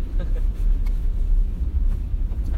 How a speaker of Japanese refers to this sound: まあまあ、こういう時はちょっと自転車は乗れんだろうっていうことで 車をね、貸してくれたんで、車での通勤をしている、その中、えー、ラジオ収録をしている、そんな状況です。